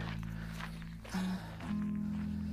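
footsteps and heavy breathing

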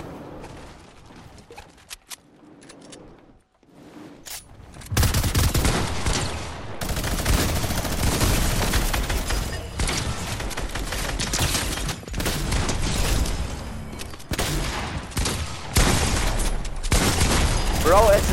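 video game gunfire

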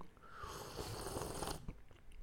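loud slurping

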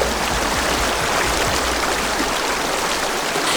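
flowing river water

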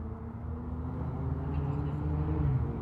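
cars passing by

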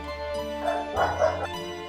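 dog barking

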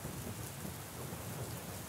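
rain with thunder

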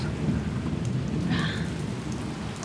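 rain falling

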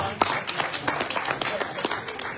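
audience applause

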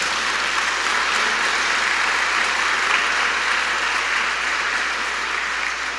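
audience applauding

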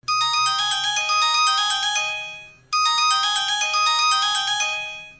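mobile phone ringtone

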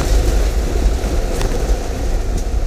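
car passing by

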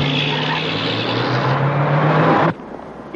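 car driving

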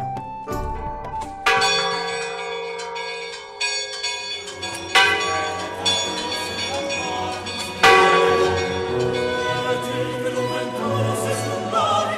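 church bell ringing

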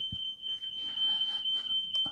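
smoke alarm beeping

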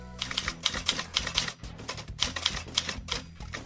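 typewriter typing

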